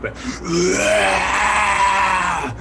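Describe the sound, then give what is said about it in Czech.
A voice imitates a dragon's roar: one long, loud, gravelly growl that swells quickly and holds steady for about two seconds before cutting off, alone. “Vlastně jako, jako fakt dračí řev.”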